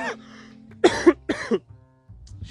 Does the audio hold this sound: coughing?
yes